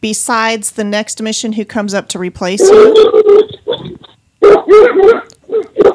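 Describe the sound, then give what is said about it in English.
Dogs bark and growl loudly in a couple of rough bursts, cutting in over and after a man's speech. “Sorry, I apologize for my dogs.”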